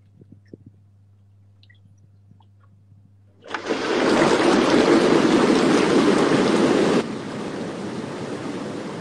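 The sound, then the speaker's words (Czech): Hot tub jets switch on with a sudden loud, steady rush of churning water that holds for several seconds, then eases slightly but keeps running. A low hum sits underneath before the jets start. “Hmm, no nevím, jestli to lidi chtějí vidět, protože jak frčí tvoje výřivka, tak počkáme, jestli to napíšou a Protože někdo tady psal, že je jako uměle vymyšlená, že to jako nefunguje.”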